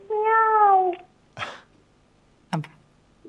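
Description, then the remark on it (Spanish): Clinton's cat meows once in a clear, drawn-out call, followed by two shorter, fainter chirping sounds after brief pauses, with no one talking. “Y de repente apareció el gato de Clinton. Cuando apareció el gato de Clinton, yo ya estaba parado prácticamente para irme, pero escuché”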